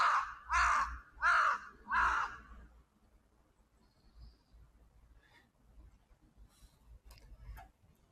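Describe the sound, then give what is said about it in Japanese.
Three loud, harsh crow caws in quick succession where many crows gather near their nest, followed by quieter outdoor ambience with faint chirps and a few soft clicks. “カラスがいっぱいいますね。”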